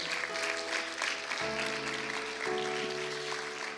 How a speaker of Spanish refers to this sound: denle palmas fuerte al Señor.